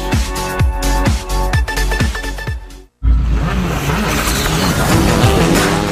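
Loud engines of rally cars in the Copa 1600 de Rally, a series of events in the archipelago, roar and rev, with sharp throttle bursts and gear changes, a brief cut of silence, then more sustained engine noise with tires squealing.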